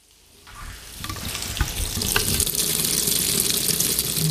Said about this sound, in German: nun gehen wir weiter in ein gekacheltes Bad in beunruhigend kaltem Weiß, so empfinde ich das. Wasser läuft hier aus dem Hahn im Waschbecken.